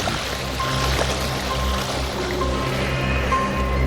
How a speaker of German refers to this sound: Nachdem Justus das Passwort eingegeben hatte, schnippte Oinki Hinki mit den Fingern, worauf die gewaltigen Wassermassen durch ein Abflussrohr in die Tiefe gesogen